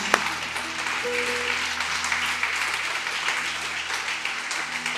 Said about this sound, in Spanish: Amén y amén. Junte sus palmas. Dele fuerte el aplauso a Dios.